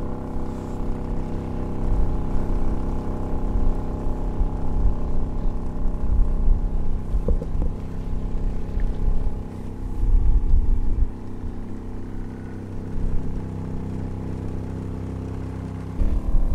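A boat motor runs steadily on the water, a low, continuous droning hum with a brief swell in loudness partway through. No one speaks.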